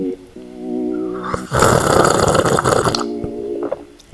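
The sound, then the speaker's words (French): A loud, noisy slurp of a sip of bergamot tea lasting about a second and a half, bracketed by a low, steady voiced hum before and a briefer one after. “Donc tout ça, ça mérite un petit sifflement de thé.”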